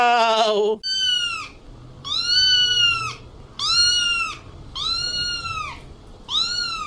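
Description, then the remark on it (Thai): A real cat meows loudly in its original voice, about six drawn-out, arching cries in a row with short pauses between them, and no one talking. “นี่นี่นี่นี่ไปฟังเสียงแบบออริจินอลดีกว่า ว่าเจ้าแมวออริจินนี่มันคืออะไร เสียงแบบว่าดังเดิมเสียงต้นฉบับ เสียงเจ้าแมวจริง ๆ อ่ะ”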